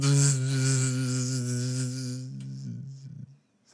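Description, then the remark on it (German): A voice imitates a loud buzzing wasp with a steady, droning hum that holds for over two seconds, then wavers and breaks up into a few stuttering bursts before fading out. “Es war eine Wespe, ey. Das war, und die war aber richtig laut.”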